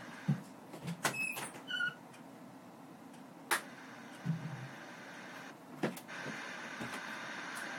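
A door creaks and squeaks as it opens, with a few short high-pitched squeals and some clunks and knocks. There is no talking.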